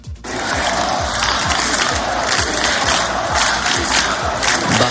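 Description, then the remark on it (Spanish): A large, loud crowd of 40,000 to 60,000 people at a Partido Popular rally against the amnesty law in Madrid on a Sunday roars and shouts together in steady unison, a dense wall of voices with a rhythmic pulse like chanted slogans, continuing without pause. “Calles repletas, multitud de pancartas y con gritos de unidad y en contra de Pudemon.”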